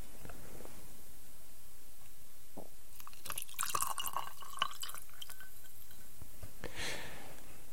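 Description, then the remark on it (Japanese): Super Nikka whisky poured from a glass bottle: a quiet run of gurgling glugs and faint clinks over a few seconds, then a brief trickle near the end. Nobody speaks. “もうね、スーパーニッカの瓶はさ、あの、注ぐ時にね、いい音がする瓶なんだけど、最初のね、あの、中身がね、多い時しかあの音は出ないんだよね。”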